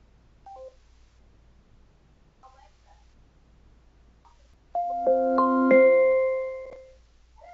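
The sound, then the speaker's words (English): A bright electronic chime of several stacked tones, an Amazon Alexa drop-in call chime heard on the Echo device being called, rings out clearly, rising in sequence and sustaining for about two seconds before fading, after a stretch of near silence with faint murmurs. “So when you drop in, the thing that you're dropping into gets to hear that beautiful little chime.”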